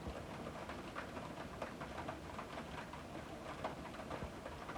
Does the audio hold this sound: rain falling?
yes